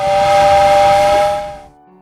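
A loud steam train whistle blows one sustained, steady blast with a breathy hiss, then cuts off, leaving a faint low rumble.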